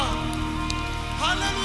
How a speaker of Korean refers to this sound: 우리가 할 수 있는 최고의 영광과 감사의 박수 올려드립시다